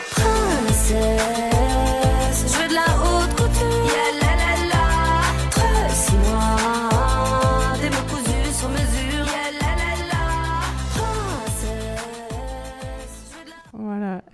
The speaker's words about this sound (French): vraiment c'est que des c'est que des punchlines comme ça euh, pendant toute le toute la chanson donc euh, à écouter, à faire découvrir à vos élèves.